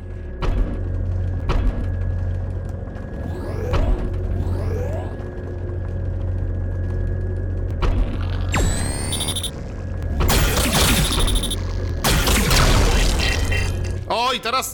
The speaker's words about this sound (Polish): ten dźwięk oznacza bossa, który gdzieś tu jest.